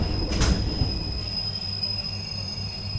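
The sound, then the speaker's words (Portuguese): Steady low rumble and rhythmic rattling inside a moving train carriage at half past seven in the morning, on a train whose last stop is Cascais, with a constant high whine and a brief squeal of wheels near the start; no one speaks. “São sete e meia da manhã, já no comboio, é tempo de um telefonema para casa.”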